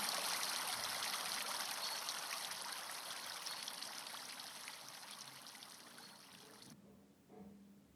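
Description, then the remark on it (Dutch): Water trickles and splashes steadily from a fountain, a continuous bright rush that cuts off abruptly near the end, leaving a faint low murmur behind. “Sta op, vorm met je handen een kommetje en vang het water van de fontein op.”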